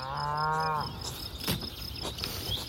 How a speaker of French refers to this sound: Nous sommes dans la campagne bretonne près de Cavan, dans les côtes d'Armor. Des vaches profitent de la douceur de l'été et broutent l'herbe grasse d'une prairie.